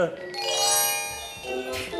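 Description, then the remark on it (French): Bright glockenspiel bells, the magic chimes of the bird-catcher Papageno, chime in a quick, tinkling run of ringing notes, with a fresh cluster struck near the end, the tones overlapping and shimmering at a moderate volume. “Un ah, glockenspiel Un glocken quoi Des clochettes”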